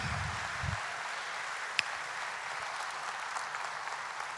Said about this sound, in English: Come on, give them a hand clap, everybody.